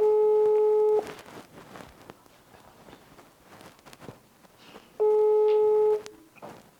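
Two loud, steady telephone call tones, each about a second long, separated by a pause of several seconds filled with faint background noise and soft movement sounds, as someone phones a farm about a job advertisement.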